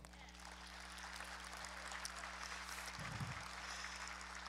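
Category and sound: crowd, audience clapping applause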